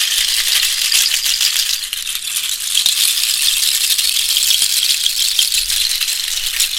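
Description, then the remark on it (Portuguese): A ritual rattle shaken continuously and fast during an energy cleansing ritual, a dense, bright hiss of seeds or beads that stays steady and fairly loud throughout, with no voices. “Permita que o barulho das charcas possa quebrar os padrões aquelas chateações.”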